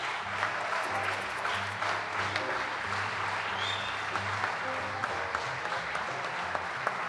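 A crowd claps steadily and loudly for several seconds for a band, at the end of a Nacional Rock radio programme: a dense wash of overlapping hand claps with no voices rising above it.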